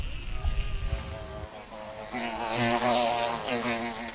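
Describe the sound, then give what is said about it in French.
Honey-making flies buzzing at an apiary, a steady droning hum with shifting pitch as several insects move around, with some low rumbling noise at the start. “Bah voilà, venez avec moi, là on rentre, euh, on rentre dans le mouchaillé donc. C'est là que, les mouches euh, passent, la nuit et euh, voilà, il faut savoir que le, miel se produit pendant la nuit.”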